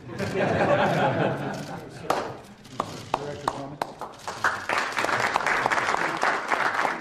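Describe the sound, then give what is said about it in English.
A crowd applauds James Comey with dense, steady clapping that thins briefly to a few scattered, sharp claps before swelling back into loud, sustained applause. “and of course, here at the end, that's them literally, literally applauding James Comey.”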